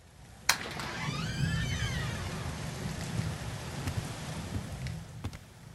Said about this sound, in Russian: Шел дождь со снегом и дул сильный ветер.